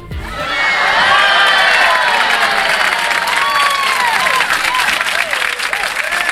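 A large audience bursts into loud, sustained applause mixed with cheering, whistles and excited shouts, swelling in within the first second and continuing steadily to the end.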